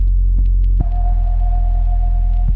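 A dubstep track by a Japanese artist with a heavy, throbbing low bass, a sustained mid-pitched tone and a few sparse, sharp percussive hits. The music is loud, with no voices.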